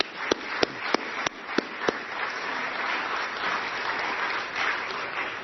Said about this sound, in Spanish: Amén. Damos gracias y un aplauso.